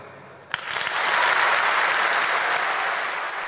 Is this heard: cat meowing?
no